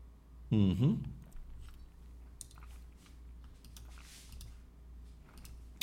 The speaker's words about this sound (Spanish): Si le damos aquí Site Security, iríamos a este mismo, seguridad del sitio, vamos a darle un clic y vamos a ver las opciones.